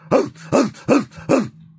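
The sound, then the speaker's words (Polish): An actor imitates a dog, practising barking for a dog role, letting out four evenly spaced bark-like yelps with a whiny, whimpering edge, fairly loud, with no talking. “Czyli jeżeli mam grać psa, to uczę się szczekać.”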